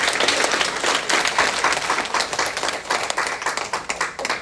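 Sustained applause from an audience at the end of a class at a women's event, thanking a consultant. A dense wash of many hands clapping at a steady, loud level throughout, with no voices standing out.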